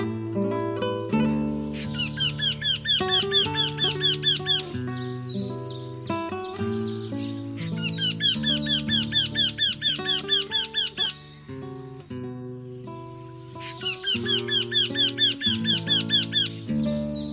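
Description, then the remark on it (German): Three bursts of a Eurasian wryneck's call, each a rapid run of nasal, squeaky high notes repeated a dozen or so times, heard over steady instrumental music with sustained low tones. “Das war der Wendehals.”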